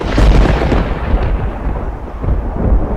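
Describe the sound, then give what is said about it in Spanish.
A violent storm's thunder rolls in a deep, continuous rumble, loud, with heavy low booming that swells and churns for the whole stretch without any voices. “Y a continuación, un auténtico tornado cayó sobre mí.”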